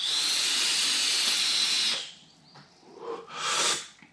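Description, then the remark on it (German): A long, steady breathy hiss of e-liquid vapor being exhaled while vaping, then a quieter pause and a second short, airy exhale puff. No one speaks. “Ich stampfe hier ein Liquid, ähm, welches auch es im Seclus Shop gibt oder gab und demnächst in einem neuen Seclus Shop geben wird.”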